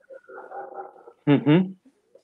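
A dog named Ciro, in the garage, whines softly for about a second, then lets out two loud barks in quick succession, followed by silence.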